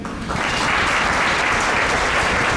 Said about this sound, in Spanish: Denle un aplauso